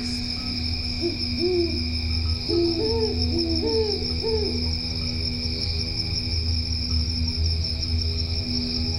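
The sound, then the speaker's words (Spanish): A steady chorus of crickets trills through the night while an owl hoots a short series of soft calls in the first half, with a constant hum of insects underneath; recorded in El Ancón, municipality of La Paz, Baja California Sur. “Los cantos del espejo plasmat acompañan a las lechuzas y los grillos en sus cantos nocturnos.”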